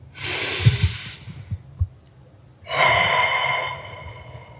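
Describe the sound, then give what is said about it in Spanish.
A slow, deep breath drawn in with a long airy hiss, a short pause, then a full breath released just as audibly, with no talking. “Tomar un momento para respirar.”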